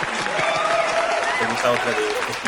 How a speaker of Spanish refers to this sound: Aplausos para el señor